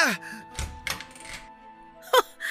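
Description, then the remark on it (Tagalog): A mother knocks three dull, heavy knocks on a door in an uneven rhythm, set against a faint sustained tone, with a brief sharp sound near the end. “Kanina pa ako katok ng katok eh, hindi mo man lang ako pagbuksan ng pintuan mo.”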